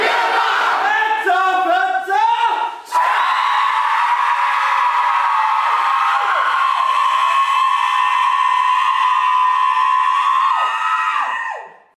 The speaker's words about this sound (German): Es gibt immer einen Vorschreier, der sagt dann, wer hat Körper? Dann, die anderen Zecher schreien immer alle drauf, äh, mir im Körper. Dann schreit der, der am Anfang aufgefangen hat, schreit dann wieder drauf, ähm, Fretzer, Fetzer.